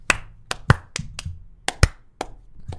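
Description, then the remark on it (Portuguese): Hand clapping in an uneven, off-beat rhythm: about ten sharp claps with irregular gaps, some louder than others, as if someone can't keep time. No talking. “Sempre tem aquela pessoa que não consegue bater é.”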